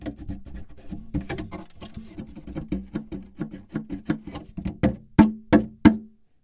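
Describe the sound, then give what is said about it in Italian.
Fingers drum quickly on the hollow body of a broken guitar, producing a rapid, uneven run of resonant wooden taps, ending with three louder, booming knocks. No one speaks. “Beh, adesso ti faccio sentire il suono che è in grado di produrre questa chitarra.”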